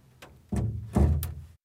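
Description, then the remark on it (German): A door in a foley studio is handled: a light click, then two heavy, booming thuds about half a second apart, with a sharp latch-like tap near the end. No one speaks. “Ja, und dann hast du natürlich auch hier dann diese Türen.”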